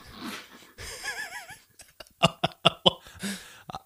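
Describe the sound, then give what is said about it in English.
A loud, honking sneeze with a wavering, trumpet-like tone, followed by a quick run of sharp, breathy bursts. “Well, first and foremost, uh, Gesundheit.”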